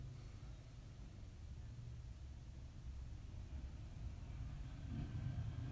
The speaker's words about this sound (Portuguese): Não, agora não, que a moto atrapalhou.